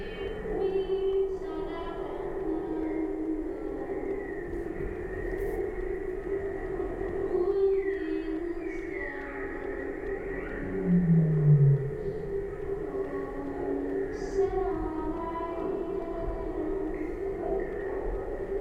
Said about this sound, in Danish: De reagerede også herude på en båd. Og der ligger nogle valer langt væk, men man kan høre dem inde i, hvis man lytter til baggrunden.